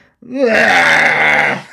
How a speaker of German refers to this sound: oi, oi, oi. So laut ist der Schrei.